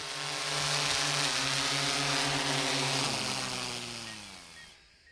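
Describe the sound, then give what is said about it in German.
A drone's buzzing whine holds a steady, loud pitch with rich harmonics, then sinks slightly in pitch and fades out at the end as it passes overhead. No one speaks. “Ja, und bevor jetzt einer losschimpft das nächste Mal über die lästigen fliegenden Lärmschleudern, erstmal schauen, ob die Drohne nicht vielleicht im forstlichen Staatsauftrag unterwegs ist.”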